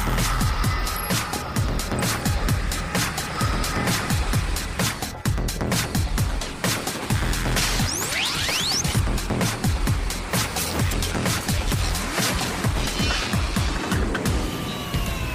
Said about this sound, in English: Six, five, four, three, two, one, zero. All engines running. Commit liftoff.